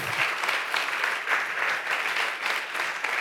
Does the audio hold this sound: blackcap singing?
no